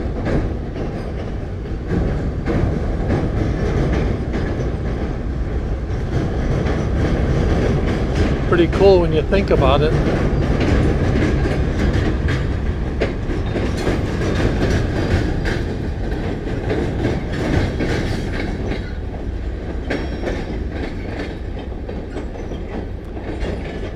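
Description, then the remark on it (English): A train rolls steadily across a railway bridge, a loud continuous rumble with rhythmic clattering wheels and a brief metallic squeal partway through, while a person talks briefly over it. “And I think the train went across this bridge also, but again, this is the first time we've seen this bridge down since we've been here.”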